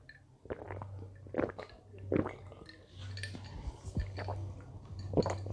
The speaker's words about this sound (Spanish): Ah, limonada, ya sabes. Ay, creo que se escuchó el vaso.